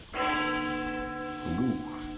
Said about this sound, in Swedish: Kyrkklockor.